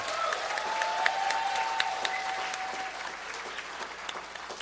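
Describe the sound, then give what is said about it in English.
A church audience claps steadily for several seconds for people introducing a new life group, a dense, even patter of many hands with scattered sharper claps, a faint sustained tone hanging beneath it early on. “But you can clap better than that.”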